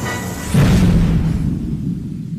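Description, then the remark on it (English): A single deep explosion booms, its low rumble swelling after a rushing onset and then slowly fading away, with no voices present. “This yep. is our 75th explosion.”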